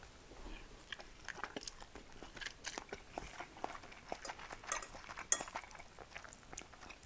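Someone eating a home-cooked lunch, with a steady stream of soft clinks and taps of cutlery on dishes mixed with faint chewing and crunching. The sounds are quiet and irregular, and no one speaks.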